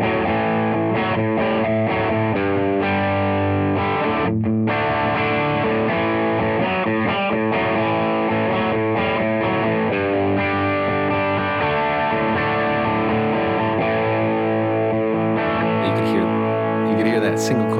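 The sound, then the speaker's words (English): A heavily distorted Limba Khrosis electric guitar with a 9T pickup in the bridge position plays dense, sustained riffs with chugging rhythmic stops, loud, with a bright, cutting tone and no voices over it. “So the first sound clip is the uh, Limba Khrosis with the 9T pickup.”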